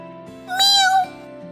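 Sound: cat meowing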